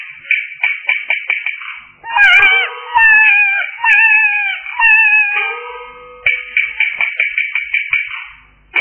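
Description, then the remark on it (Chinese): A baby crying in a back garden: quick, repeated high-pitched bursts give way to several long, wavering wails, then the rapid short cries return. Loud and unaccompanied by speech. “哎呀呀，果真是婴儿啼哭。”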